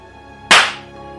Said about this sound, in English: I give him a violent slap before I even realize it. He doesn't flinch.